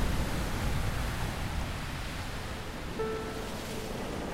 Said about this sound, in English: And the sea, how it roars.